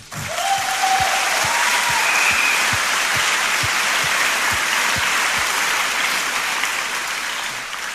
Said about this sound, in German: Da oben die Übersetzer, jeder einzelne Kabin, Englisch, Französisch, Spanisch, Russisch, alle. Sie sammeln im Moment Schätze. Können wir denen mal Applaus geben?